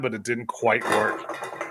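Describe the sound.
Metallic clinking and clattering of cans knocking together runs fairly loud beneath a man's brief spoken remark.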